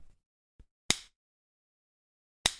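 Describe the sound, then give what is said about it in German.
Headphones handled near a microphone: a soft low bump, then two sharp, bright plastic clacks about a second and a half apart, loud, with silence between. “Nein, das sind meine Kopf Kopfhörer.”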